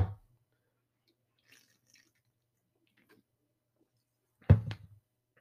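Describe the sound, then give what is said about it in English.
A wet gulp of a drink, with a soft swallow at the start and a louder one a few seconds later, faint small clicks in the quiet between. “Let me let me take a, a big gulp and then we'll we'll talk about New Year's.”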